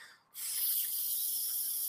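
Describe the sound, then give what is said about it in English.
A person imitates a vampire's hiss: one sustained, breathy, high-pitched hiss that starts abruptly after a brief pause and holds steady and fairly loud for over a second, with no talking. “My friends were all about vampires, but the way they hissed trying to be intimidating just made me laugh.”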